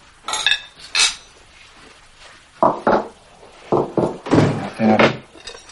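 A knife scraping and clinking against a plate as a man cuts a steak into pieces for a child in a living room, in a series of short irregular strokes, fairly clear, with a faint bump of movement in the background.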